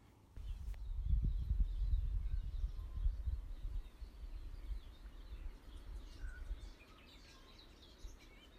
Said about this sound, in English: and hopefully that one you can hear that it is further down in the tree line. We're uh, much lower down, there's a lot more birds, and you can hear the trees rustling up above my head.